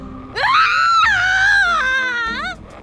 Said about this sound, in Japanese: これはカンガルーさんの悲鳴